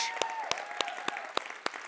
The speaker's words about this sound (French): Pour vrai, applaudissez-vous encore une fois d'être là.